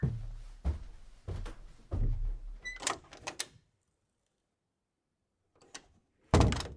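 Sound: door being closed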